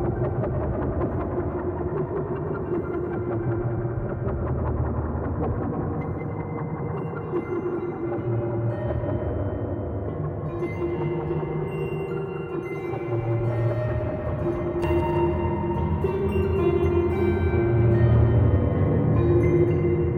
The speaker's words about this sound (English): Let's hear how the filter sounds after the reverb.